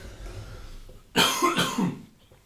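human body sound, coughing

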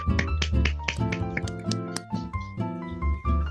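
crowd, clapping

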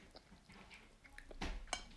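animal, cat scratching

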